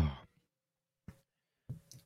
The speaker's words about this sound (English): that was a yawn. Yeah, it was.